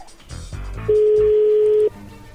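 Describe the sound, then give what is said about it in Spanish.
A phone number being dialed: a few brief clicks and beeps, then a loud, steady mid-pitched tone that holds for about a second. No one speaks. “Vamos a llamarle, ¿que le llame Lobo? ¡Llámale Lobo!”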